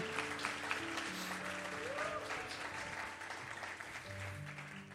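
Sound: audience applauding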